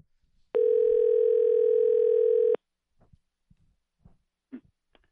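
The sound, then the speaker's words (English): A steady telephone dial tone, as a call is placed to the caller's father, holds at one pitch for about two seconds, then cuts off, leaving a few faint clicks and small bumps of handling noise in near silence. “Let's call my dad.”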